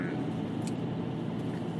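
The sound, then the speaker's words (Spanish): A steady, low rumble of engine and road noise inside a moving car, constant and fairly loud, with no voices and no distinct events. “ya llevo un poquito en el coche”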